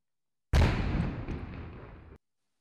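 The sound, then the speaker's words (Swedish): A single loud cannon blast with a sharp onset and a rumbling tail that fades over about a second and a half, then cuts off abruptly. No voices are heard. “Vi kör igång med dagens första kanon”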